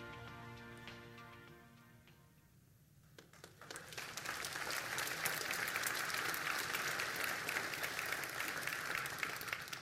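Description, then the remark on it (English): A held musical chord fades out, then an audience breaks into loud, sustained applause, dense clapping that swells and stays steady to the end. “You can applaud that.”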